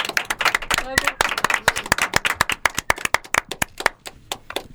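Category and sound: crowd, people clapping in studio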